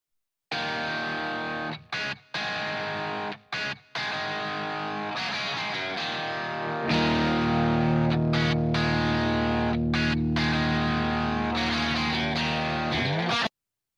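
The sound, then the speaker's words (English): Bright, slightly distorted electric guitar, a Jared James Nichols signature Epiphone Les Paul with a P90 pickup, plays choppy chord stabs with short gaps, then settles into a loud, sustained ringing chord. No voices. “And we chose that because it was a P90 pickup, which has kind of a different sound to it.”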